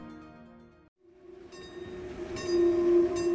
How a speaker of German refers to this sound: Glockenton eines Bahnhofs, bevor der Vorhang aufgeht.